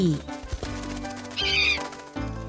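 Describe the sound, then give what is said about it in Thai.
An eagle spreads its wings and flaps as it takes off into the sky, with a brief shrill, wavering cry in the middle over a steady background. No one speaks. “เมื่อนกอินทรีได้ฟังเรื่องราวจบ ก็รับปากจะช่วยค้นหาให้ แล้วกางปีกบินขึ้นสู่ท้องฟ้าทันที”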